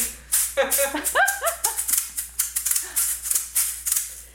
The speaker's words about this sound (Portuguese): aí é a maraca, é um instrumento idiófono. Imagino que em português é idiófono, não sei. Ele produz o som por si mesmo. É por isso a classificação, né? Aí ela fez assim, ela faz assim.